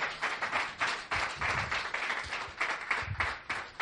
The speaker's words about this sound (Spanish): Dale un fuerte aplauso al Señor. Aleluya.